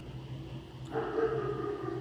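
A dog barks once in a drawn-out, tonal burst that starts partway through and carries on to the end, moderately loud over a steady low background hum, with no talking.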